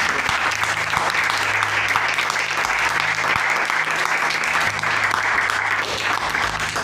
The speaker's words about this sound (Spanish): Y bueno, démosle por favor un fuerte aplauso.